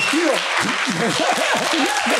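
Audience applause, a dense, steady crackle of many hands clapping at an even, fairly loud level, with voices talking or calling out underneath throughout.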